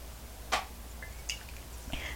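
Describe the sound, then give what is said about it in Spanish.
A single short slurping sip of morning coffee without sugar from a cup, fairly quiet, followed by faint small clinks and soft rustling in otherwise hushed surroundings. “Así que necesito un sorbito, un sorbito que me despierte informativamente, que me dé mucha energía para decirles mi opinión y mis comentarios acerca de la realidad cubana de hoy.”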